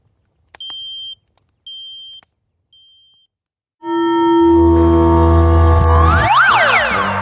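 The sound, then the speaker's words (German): A smoke alarm gives three shrill, evenly spaced beeps, then a loud, sustained electronic chord with rising and falling sweeping tones cuts in and fills the rest. “Das ist kein Update, hier brennt es.”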